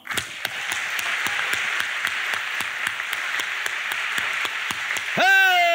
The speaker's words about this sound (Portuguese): Para você que rompeu em 2020, dá um aplauso bom.